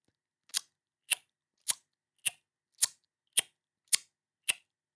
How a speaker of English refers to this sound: Most importantly, it happens with the tongue in the front of your mouth. You place the tip of the tongue against the upper front teeth and rapidly pull it away.